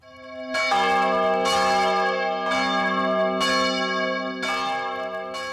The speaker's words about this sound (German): Nach dem Trauergeläut, hier jenes im Großmünster in Zürich, wurde eine Schweigeminute abgehalten, zu welcher die ukrainischen Botschaften in ganz Europa aufgerufen hatten.